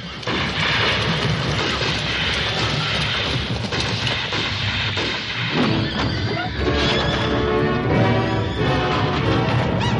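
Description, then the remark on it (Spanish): Horses whinny and neigh as men untie them and open the side gates, amid a loud, dense commotion of hoofbeats and clattering, with bangs and crashes mixed into a constant roar that stays at full volume throughout. “Los hombres desatan a los caballos y abren los portones laterales.”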